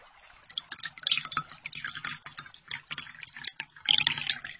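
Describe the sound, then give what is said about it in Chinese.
Chinese tea pours into a cup in a thin, splashy stream, bubbling and trickling unevenly for a few seconds with brief louder surges. No one speaks. “冲这种饮料的水啊是这样的，而倒这种饮料的声音呢，也是和前几种相比完全不一样的风质。”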